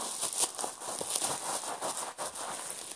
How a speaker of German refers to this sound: So, das nennt sich Knisterportfolie.